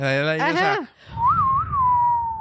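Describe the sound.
A short, clear whistled melody of a western film theme rises and dips over a few sustained notes, fairly loud, following a brief voiced sound and a low background rumble.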